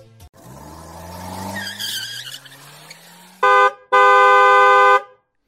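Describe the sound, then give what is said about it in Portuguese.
A short car-themed segment jingle introducing a Gearhead dictionary segment about engines: an engine revs and rises in pitch, tires screech, then a horn honks twice, a quick blast followed by a longer one. Loud, with no talking. “Então, bora lá, puxa a vinheta aí,”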